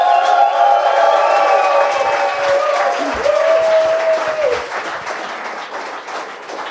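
A soundboard applause effect: a dense burst of crowd applause and cheering with whoops and shouts, loud at first, then gradually easing off as the clapping continues.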